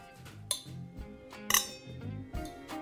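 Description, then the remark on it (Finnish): Glasses clink together in a toast, three bright ringing chimes spaced about a second apart, clear over a low, murmuring background. “skool nytten.”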